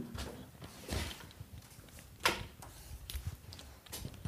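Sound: door being opened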